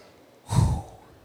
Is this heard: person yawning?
yes